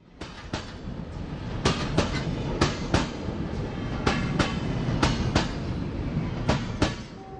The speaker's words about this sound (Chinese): 这次让我们再走得更远一点，去认识一下。平溪支线的沿线的特色景观，还有它背后的故事，那就让我们搭上火车，开始走入山林之中吧。